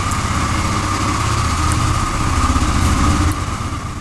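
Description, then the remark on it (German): A loud, steady tractor engine rumbles on the street on a public holiday for the whole stretch, a heavy low throbbing with a faint whine above, easing off slightly near the end as if moving past. “ja was ist das denn jetzt hier für ein Lärm? Informationstag. Straße ist das ein Traktor, würde ich mal tippen.”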